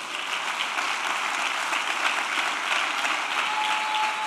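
A church audience applauds steadily for Jesus, a dense, even wash of many hands clapping at once with no pauses, fairly loud and sustained throughout, with no voices standing out above it.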